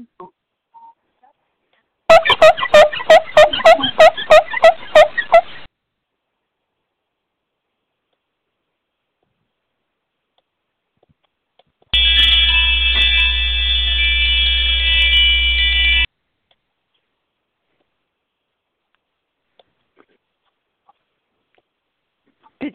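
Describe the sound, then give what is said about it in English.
About a dozen quick, squeaky rubbing strokes on a dusty teapot, loud, in a rapid rhythm. After a pause, a steady loud buzzing tone holds for a few seconds. “Well, let me try rubbing it a little harder.”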